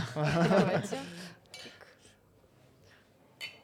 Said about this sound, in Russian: Традиция чокаться. Традиция чокаться на подкастах.